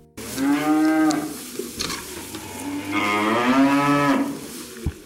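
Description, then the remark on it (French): Prim'Holstein dairy cows moo loudly, two long drawn-out lowing calls a couple of seconds apart, over a steady background rustle and clatter, at the GAEC d'Opiac dairy farm in the Camarès area of southern Aveyron, France. “donc je suis agriculteur dans le sud d'Aveyron, dans le secteur de Camarès, en vache laitière.”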